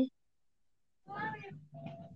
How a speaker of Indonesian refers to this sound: Awas ada kucing. Ada kucing kecil. Iya, soalnya ada kucing. Kucing liar masuk.